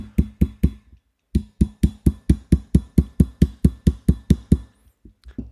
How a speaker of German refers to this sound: Ey, dann mach doch wenigstens das Messer wieder rein, wenn du den Leatherman als Hammer nutzt.